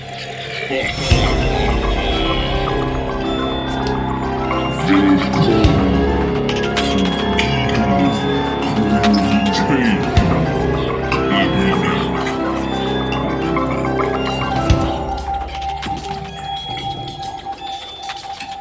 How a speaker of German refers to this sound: Ich hab gar nichts, wollte nur einmal den Jingle hören.